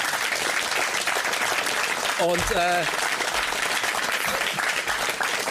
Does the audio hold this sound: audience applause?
yes